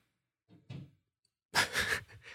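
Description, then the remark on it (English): A door sounds as if in the same room, a loud, rough, rushing burst lasting about a second, preceded by a couple of soft, breathy scrapes. No one speaks. “Like that sounds like the door was in the room.”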